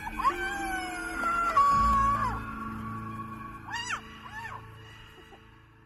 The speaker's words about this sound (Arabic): تشجعت وصرخت من داخل قلبي من زمان ما فرغت غضبي للجبل وهكذا صرخنا وعبرنا عن اللي داخلنا للجبل بصوت عالي وبحرية أصواتنا رقصت مع الريح